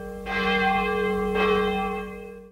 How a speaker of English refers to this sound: Why does the bell ring now? It's not prayer time.